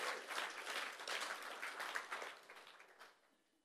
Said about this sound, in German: Und ich glaube, wir sollten unserem Kamerateam mal einen dicken, fetten Applaus geben dafür, dass sie Sonntag für Sonntag hier stehen und einfach total gute Arbeit machen.